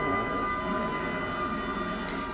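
Car horns blare in a busy street as cars try to disperse, several sustained tones overlapping steadily against a dense wash of traffic noise, loud, with no pauses.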